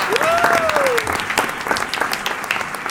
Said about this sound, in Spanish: Oye, un aplauso para